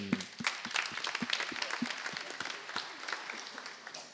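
A crowd applauds steadily to welcome a speaker from the Oudere Partij voor Dongen giving a pitch, a dense patter of many hands clapping at once, moderately loud and sustained throughout with no voices on top.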